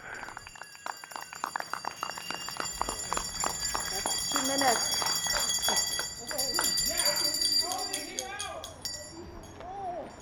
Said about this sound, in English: He leads a nightly chorus of bells and claps to show support for healthcare workers. And you heard the full two minutes of bells and whistles